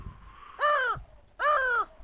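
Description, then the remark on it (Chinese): A crow caws twice, two loud, harsh, rasping calls separated by a short pause, heard alone over a faint steady background hum. “山塔上，乌鸦盘旋，悠然等待应女之次。”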